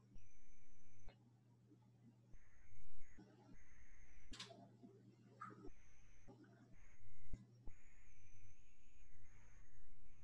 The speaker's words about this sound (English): Give a few moments for the crickets outside to make their presence known. you guys can hear them. I don't know if you can hear them or not.